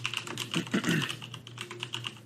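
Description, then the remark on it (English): Rapid typing on a computer keyboard while searching online how long a virus survives on surfaces: a steady stream of light, crisp clicks and taps with an irregular rhythm, joined briefly by a low murmur of voice partway through, with a faint steady hum underneath. “are you googling if freezing viruses kills them?”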